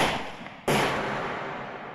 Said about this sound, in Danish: To skud.